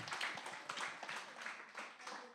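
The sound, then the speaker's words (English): A crowd of people clapping their hands together to praise Jesus for salvation, a dense, continuous patter of overlapping claps that swells in soft waves, fairly quiet, with no voices over it. “If you've done it, just clap your hands because we're going to praise Jesus for salvation.”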